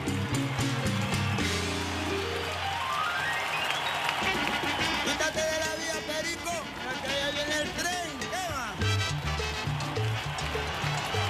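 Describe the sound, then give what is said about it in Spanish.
A lively Cuban son song plays loudly throughout, with a steady rhythmic band backing sung vocals and a chorus-like refrain that rises and falls. “Qué tema tan sabrosito para arrancar la mañana”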